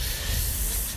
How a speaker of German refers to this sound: deswegen da windet ziemlich stark und hier auch irgendwie.